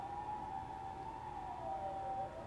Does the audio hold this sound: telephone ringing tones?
no